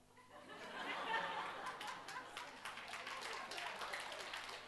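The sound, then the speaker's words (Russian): An audience applauds, a dense, steady patter of many hands clapping that swells early and holds for about five seconds, with faint laughter mixed in. “Я сорвал аплодисменты.”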